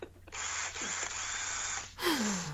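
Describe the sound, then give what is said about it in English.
A power drill whirs steadily for about a second and a half, then gives a short second burst that winds down in pitch as the motor spins to a stop, with no talking. “That's be drill. That's worrying sound.”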